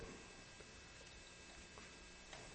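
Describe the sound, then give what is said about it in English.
Soft, continuous papery rustling as many Bible pages are flipped at once around a room, people turning to Mark chapter 11, with scattered small ticks and whispers of paper over a quiet background and no one talking. “the sound of pages turning is awesome.”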